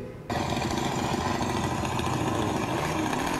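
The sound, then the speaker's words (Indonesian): A motorcycle engine in a played video, filmed in Thailand beside a grave, kicks in abruptly after a brief quiet start, then runs steadily with a loud, rough, sputtering drone throughout. “oh, video dia bawa motor kita setel aja videonya ya iya ini dia”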